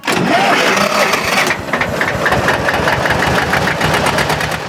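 A tractor engine cranks and catches, then settles into a loud, steady idle with a rhythmic low chugging and mechanical knocking, with no voices.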